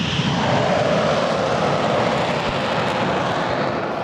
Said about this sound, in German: Im Frühsommer 2023 donnern Kampfjets über das Rollfeld in Lager-Lechfeld bei Augsburg. Zwei Eurofighter jagen hinauf in die Wolken zu einem Übungsflug.